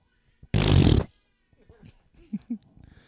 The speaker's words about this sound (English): yep, got a little bit of fart noise going on.